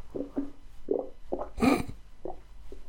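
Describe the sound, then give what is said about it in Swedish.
A stomach rumbling in a series of irregular low gurgles, moderately loud, with one fuller bubbling swell midway through and no talking. “Fan, nu håller min mage på och kurrar igen.”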